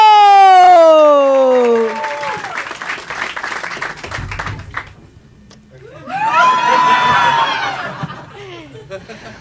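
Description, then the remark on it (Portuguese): An audience bursts into applause and cheering as a performer is welcomed onto the stage, opening with loud descending whoops over dense clapping, which briefly dies down before a second wave of excited shouts and cheers. “Recebam com muitos aplausos”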